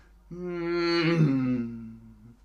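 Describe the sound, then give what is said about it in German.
A voice imitates a motorcycle driving past, holding a steady buzzing engine drone that swells, then drops in pitch midway as it passes, showing the Doppler effect, and fades slightly, with no other talking. “Und wenn es vorbeifährt, kennt ihr den Doppler-Effekt?”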